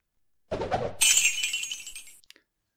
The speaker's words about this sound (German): der Loot-Sound, beziehungsweise der, der Item-Drop-Sound aus Diablo, ist für mich einer der äh, wirklich markantesten Soundeffekte überhaupt.